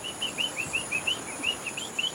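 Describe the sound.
A person imitates a frog call to keep nearby frogs calling, a quick series of about ten short, high-pitched chirps in a steady, even rhythm over a faint background hiss, with no talking.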